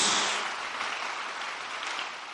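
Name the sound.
audience applauding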